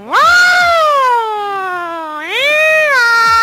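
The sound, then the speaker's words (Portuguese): A voice imitates an ambulance siren: a loud, sustained wail that slowly slides down in pitch, then swoops back up into a second rising wail, with no talking around it. “Faz ambulância aí, velho.”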